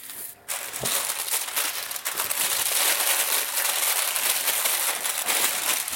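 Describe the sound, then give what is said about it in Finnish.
Continuous crinkling and rustling of baking paper, dense crackly texture running for several seconds after a brief quiet start, with no voices. “Nyt tää vähän rapistellaan. Rapistellaan vähän leivipaperia.”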